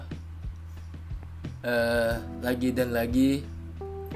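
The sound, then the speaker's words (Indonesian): A steady low hum from an electric fan running in a bedroom, constant throughout, with a person speaking briefly over it in the middle. “kalau kalian dengerin suara bising itu suara kipas karena kalau di kamar gue itu panas kalau nggak pakai kipas.”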